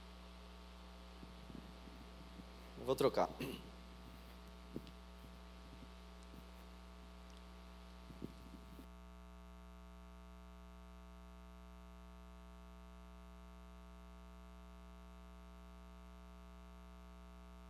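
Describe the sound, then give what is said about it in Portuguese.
A steady low electrical hum from microphone interference, with buzzing overtones, drones through the whole clip during a sermon, joined by bursts of crackling handling noise and a few thumps early on, plus a short spoken phrase. “É importante, antes de nós lermos o texto, vocês acham melhor eu trocar o microfone, que está dando interferência aqui?”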